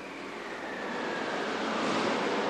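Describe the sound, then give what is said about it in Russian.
Stormy sea ambience: a steady roar of wind and crashing waves that swells louder over a few seconds, broad and continuous with no voices. “Однако ветер все усиливался, и вскоре разыгрался страшный шторм.”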